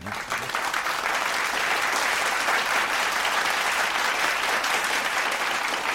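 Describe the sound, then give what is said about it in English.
Steady, dense applause from many hands fills the scene, loud and continuous throughout with a crackling texture, no individual claps standing out and no voices rising above it. “And I gotta clap that up.”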